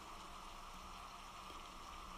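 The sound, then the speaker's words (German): Steady, dense storm rain pours down in a constant hiss, with a broad wash of patter on surfaces and no breaks or voices throughout. “Jeden Moment würden dicke Tropfen ihre Kleider durchnässen und die salzigen Tränen von ihrem Gesicht spülen.”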